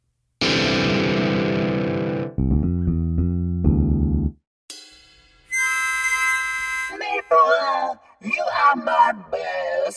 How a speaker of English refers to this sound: Critics are hailing it as the worst song ever recorded, and quite possibly the result of several accidents. Maybe he tripped and fell onto some instruments, and that's why it sounds that way.